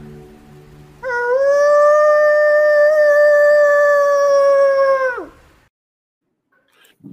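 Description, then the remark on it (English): A person imitates a wolf howl with one long, steady, loud note held for about four seconds before it slides down and breaks off, followed by quiet. “But here's something I might do when I'm out there as far as a howl.”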